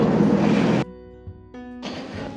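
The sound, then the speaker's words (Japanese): Loud, steady road noise from many vehicles rushing past on a busy road on a weekday, dropping briefly to a quieter engine hum before another car sweeps in, with no talking. “それにしても車が多いなと思いますが”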